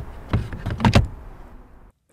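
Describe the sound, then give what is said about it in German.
A charging plug is pushed back into the socket in an electric car's front hood: a quick series of mechanical clicks and a solid clunk, followed by a brief quiet hum of background noise before it cuts off. “Sagt's und schiebt den Stecker wieder in die Kühlerhaube”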